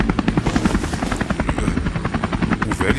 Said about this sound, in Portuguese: estava do meu lado quando voltei a atenção pro helicóptero e, e de repente não o vi mais.